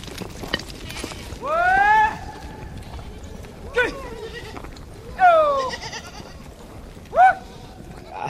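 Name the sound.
goat herd bleating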